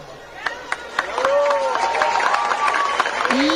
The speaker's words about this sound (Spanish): Me regalan con todo respeto un minuto de aplausos.